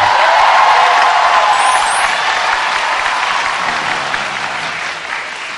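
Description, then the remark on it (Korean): Loud, sustained applause from a large audience welcoming actor Kim Hee-won as a guest, a dense wash of clapping that holds steady before easing off slightly toward the end, with no voices on top. “영화나 드라마에서 그렇게 나쁜 짓을 많이 했는데도 이렇게 많은 박수들이 항상 그렇더라고요.”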